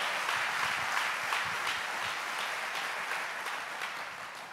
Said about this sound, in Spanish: Dele fuerte ese aplauso al Señor.